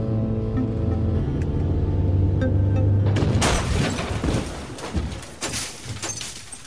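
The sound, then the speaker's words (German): A car engine drones steadily, then a sudden loud crash erupts as the car, its driver having nodded off at the wheel, slams into a highway guardrail, followed by grinding, scraping metal as its right side scrapes along the guardrail, and rattling debris that gradually settles. “Das Auto ist in die Leitplanke geknallt.”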